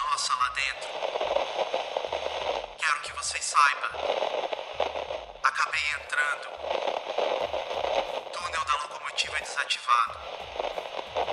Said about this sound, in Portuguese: algum intervalo de estática após isso e novamente a mensagem.